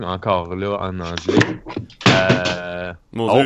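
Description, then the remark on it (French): A single dull thunk of an object knocked onto the floor by a cat, sharp, landing in the middle of steady talking and followed by a startled exclamation. “Ah, je m'excuse, c'est mon chat qui a fait tomber euh, ah.”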